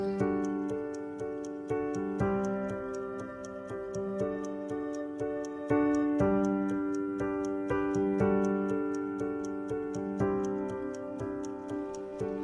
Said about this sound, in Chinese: 在听这首歌的时候，想到一个节目主题，也许可以盘点一下那些歌曲当中有时钟声音的作品，因为这样的时钟声音让我们突然间特别特别想去谈时间这样一个话题，也让我们在听歌同时，在放松同时，有那么一点点的被催促的紧迫感。